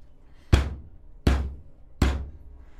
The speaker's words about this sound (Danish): bankene blev mere intense.